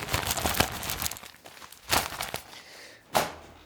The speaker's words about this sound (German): Es wurde geraschelt.